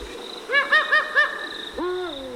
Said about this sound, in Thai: แต่ถ้าเราเข้าไปอยู่ในป่าแล้วเราก็เราจะได้ยินเสียงชีวิตมากมายในป่ายามค่ำคืนค่ะ และหนึ่งในนั้นก็คือ นกฮูกค่ะ